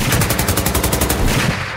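A loud burst of rapid gunfire during a school library shooting, roughly a dozen sharp shots in a fast, even rhythm over about a second, then a dull rumbling tail as the firing stops. No one speaks.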